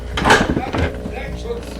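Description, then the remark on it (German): A metal door bolt is slid shut by Peter: a sharp scraping clack followed by a few softer rattling knocks, with a faint low murmur continuing underneath. “Peter, schnell den Riegel vor.”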